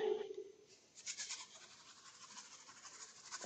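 A homemade shaker filled with chia seeds gives off a soft, hissing rattle, shaken steadily in a quick rhythm of swishy pulses after a brief pause, fairly quiet.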